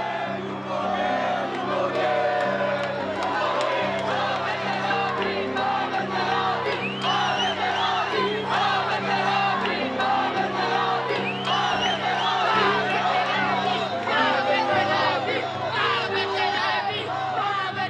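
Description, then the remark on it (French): A large crowd at a political rally shouts and yells continuously, many voices overlapping in a loud, dense roar that stays steady throughout with occasional louder cries rising above the mass. “le Premier ministre actuel, il a dit qu'il n'a pas écouté les cris et ni vu les affiches qui étaient mise sur son plateforme.”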